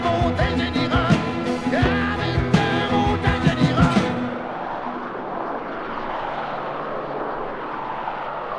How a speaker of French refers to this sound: avion ou genre les chars qui passent sur le chemin Chambly? Euh, ouais, les chars. Il y a des gros moteurs dans le temps, les chars.